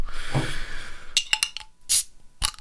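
A beer bottle is opened for a tasting with a breathy fizzing hiss, followed by a string of sharp clinks and splashy bursts as beer is poured into a glass, forming a bright white, fine-pored foam. No voices.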